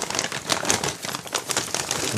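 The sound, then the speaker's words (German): A paper snack bag from Lidl crinkles and rustles steadily, with irregular crisp crackles running through the whole moment and no clear pauses. “Hast, hast, du das in einem Ost-Süßwarenladen äh, gekauft oder warum ist das so eine Papiertüte?”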